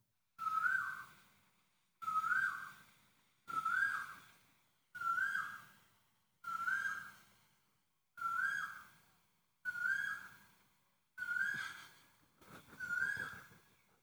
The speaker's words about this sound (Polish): Y, co to za ptak? Bo ja nie wiem i może ktoś z was wie, jaki to ptak w Tajlandii robi taki dźwięk. Uwaga.